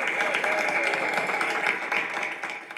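A steady burst of audience applause, dense and even throughout, with scattered cheers and voices mixed into the clapping as a financial guru guest is welcomed.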